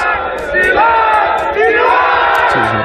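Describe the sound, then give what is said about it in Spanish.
A large crowd of protesters in China chants and shouts together in loud, sustained unison against COVID lockdown restrictions, voices swelling and dipping in rhythmic waves, with a massed roar filling the space throughout. “Este es el sonido de una de esas protestas”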